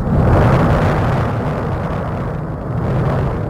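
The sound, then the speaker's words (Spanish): A deep, continuous rumble from the volcanic eruption on the island of La Palma, loud and steady throughout with heavy low-end roar and slight surges in intensity, no voices present. “es ese el estruendo que llega desde la isla de La Palma, sonido indirecto de esa erupción del volcán.”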